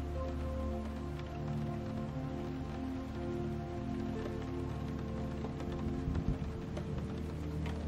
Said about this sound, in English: Each raindrop you hear tapping on your window sends your eyelids a heavier feeling, which in turn delicately lowers your head deeper into your pillow.